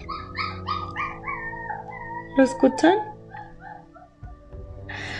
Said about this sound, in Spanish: En serio con estos perritos gritones, ¿verdad? Están aprendiendo a aullar.